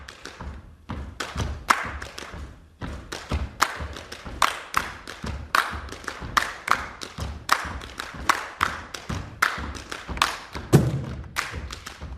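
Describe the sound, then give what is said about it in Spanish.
A recording of Cuban percussion music: a dense, driving rhythm of sharp hand-drum slaps and deeper thumps, struck in quick steady patterns with bright accents throughout, and no voices. “Vamos a escuchar un poco de su música para que ustedes vean por qué estamos tan contentos de recibirlo aquí en nuestros estudios.”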